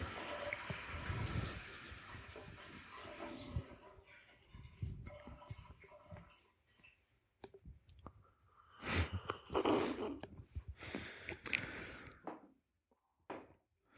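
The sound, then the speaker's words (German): Water is poured steadily for a few seconds, a rushing splash that stops abruptly. Quieter handling noises, soft clinks and breaths follow, with a brief louder burst near the end. “Da ist eine Wasserflasche, das wäre viel einfacher gewesen.”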